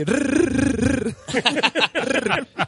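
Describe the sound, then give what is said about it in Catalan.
A man gives a loud, drawn-out throaty call followed by a string of rapid guttural calls, a shepherd's cry to summon his sheep, unaccompanied. “Jo, per exemple, quan crido les ovelles, es dic...”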